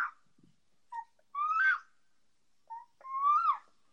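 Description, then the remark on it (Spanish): Two thin, high-pitched kitten mews, each starting with a brief chirp and rising into a wavering cry, clear with quiet gaps between them and no talking. “el gritito de los gatitos”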